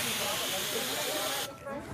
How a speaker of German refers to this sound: Ich bin bei einer Übung der Caritas-Kitas dabei gewesen. Hier stehen jetzt fünf Feuerlöscher und die nächsten dürfen an den Feuerlöscher und loslegen. Wassermarsch!